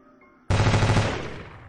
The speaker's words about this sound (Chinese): 一梭子子弹转瞬间打完，枪声一停